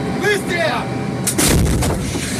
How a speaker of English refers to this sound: Even without enough ammo, the Ukrainians say they are stopping most Russian assaults here, and the M109 crew did manage to fire at Russian positions